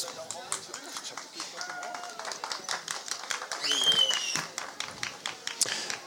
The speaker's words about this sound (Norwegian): Applaus, applaus.